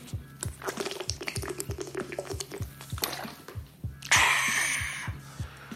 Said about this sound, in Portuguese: Deixa eu tomar mais uma água aqui.